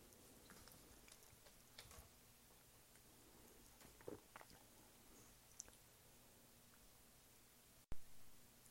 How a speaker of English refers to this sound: I was not aware that I was recording right there as I was sipping beer, and that's so gross. Who wants to hear me sip beer? Nobody.